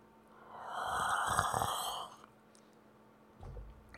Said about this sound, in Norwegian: Så det er lyden av meg som drikker kaffe.